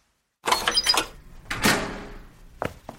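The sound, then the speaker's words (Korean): A hotel room door is unlocked by a hotel employee with an emergency keycard and pushed open: a rattling clatter of the handle, a heavier thud as it swings, then two sharp latch clicks. “직원이 비상용 카드키로 문을 열었다.”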